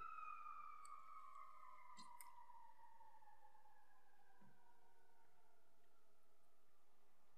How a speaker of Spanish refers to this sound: Perdón, que está pasando la, la ambulancia.